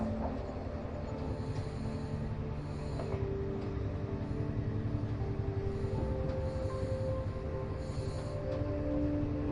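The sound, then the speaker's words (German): A departing steam train rolling steadily along, its low continuous rumble and mechanical whine filling the scene, with a soft hiss of steam over the top and faint clacks of wheels on the rails. No voices. “Die Geräusche der Abfahrt, das Klappern der Räder auf den Schienen, das Zischen des Dampfes, das leise Murmeln der anderen Passagiere verschmelzen zu einer beruhigenden Symphonie, die dich einhüllt”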